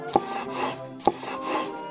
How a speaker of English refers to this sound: Take the sheet pasta, cut it into two inch squares,